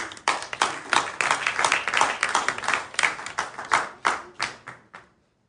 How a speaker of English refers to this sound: Without further ado, may I uh, introduce our next speaker, who is Antonio Smith, and he's going to be talking on the subject of humanizing your company brand and creating obsessive round of applause.